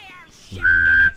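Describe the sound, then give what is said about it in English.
A person hums and whistles at the same time, a steady high whistle over a low buzzing hum, making a short sci-fi tractor-beam imitation that swells briefly, then cuts off. “Oh, all you do is hum and whistle at the same time yeah.”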